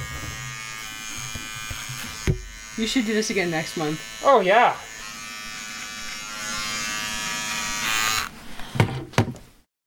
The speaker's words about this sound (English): They shave his beard into a goatee, a handlebar mustache, a set of mutton chops.